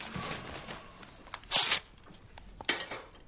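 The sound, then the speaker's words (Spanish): A bulky envelope is ripped open in two quick tearing bursts, the first longer and louder, with soft paper rustling and handling noises around them. No one speaks. “Coge un sobre abultado. ¿Cree que es otra broma? Hmm. Lo abre.”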